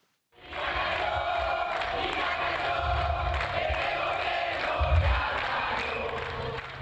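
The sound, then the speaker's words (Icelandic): A large crowd of protesters in the capital Santiago, Chile, protesting against Venezuelan president Nicolás Maduro, chants and shouts together in a dense, sustained roar of many voices, steady and loud throughout, with rhythmic swells of low thumping underneath. “Hér heyrðist í mótmælendum í höfuðborginni Santiago í Síle.”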